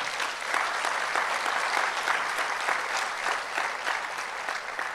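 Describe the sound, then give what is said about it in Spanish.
An audience in a church worship service applauds steadily for the full five seconds, clapping to praise the Lord after saying amen, a dense, even wash of many hands clapping at a constant, fairly loud level with no voices rising above it. “Cuando dicen amén, denle un aplauso, adore al Señor.”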